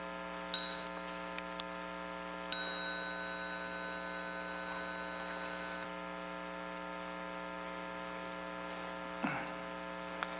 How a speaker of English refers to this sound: So when you hear the, the small bell, please stand up and salute the Sangha before you continue outside.